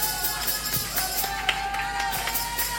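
An audience claps steadily for about three seconds in applause for a performer on stage, a dense wash of overlapping hand claps at even loudness, with a faint sustained tone running underneath.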